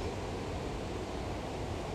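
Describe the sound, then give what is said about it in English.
Ocean surf washes steadily onto the shore, a continuous, fairly soft roar of rushing water with no distinct individual breaks and no voices. “And as the waves hit my feet, just take the anger out of me and into the deep”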